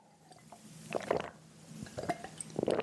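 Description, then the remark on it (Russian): Quiet sipping and swallowing of water in small sips, three short wet bursts, each a cluster of soft slurping clicks separated by brief pauses, with no talking. “люди будут это слышать, а, потому что вы будете вот так вот часто сглатывать, да, это будет слышно. Поэтому всегда пейте маленькими глотками воду.”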